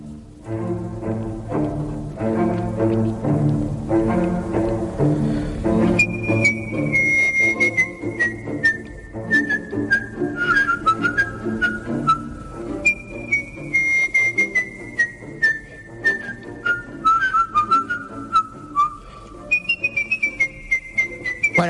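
A person whistles a flowing opera-style melody, clear and close, over a steady instrumental backing track that plays alone for the first few seconds before the whistling enters.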